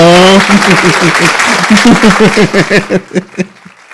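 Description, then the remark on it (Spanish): An audience breaks into loud, dense applause for a jockey who won the Eclipse Award as best jockey, a brief voice rising over it at the start; the clapping holds steady, then thins into scattered rhythmic claps and fades out. “Aplauso, Rafael, aplauso, aplauso.”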